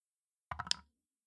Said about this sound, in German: Na dann würfel ich nochmal Schaden aus.